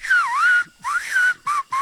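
A whistled speech phrase in an Amazonian village, Trois Sceaux, on the border between French Guiana and Brazil, saying the jaguar eats the anaconda: a single clear whistle gliding up and down in pitch across four bursts, the first two long and swooping, the last two short and loud, with no talking.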